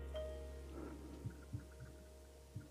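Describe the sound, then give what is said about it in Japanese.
Soft, muffled taps on a microphone arm fitted with a newly installed shock mount, four dull low thuds at uneven intervals, fairly quiet over a steady electrical hum, with no one talking. “この音聞こえるかなあの、今、マイクアームをトントントントン叩いてたんですけど、この叩いたような振動の音とかをね、テーブルにぶつかったりした時の音をマイクに伝えないようにするために、まあ、マイクが宙に浮いたような状態になるようにする。”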